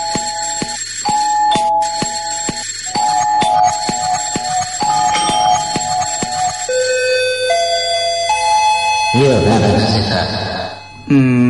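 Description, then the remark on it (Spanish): A loud, continuous sequence of electronic doorbell chimes rings out, tones stepping from pitch to pitch, ending in a warbling, wavering chime before a brief drop. “Casa de Timbres Rinraje. Música para tus oídos.”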